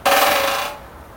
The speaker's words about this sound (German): So klingt der Specht im Wald, aber vielen bleibt in der Stadt nur noch der Laternenpfahl.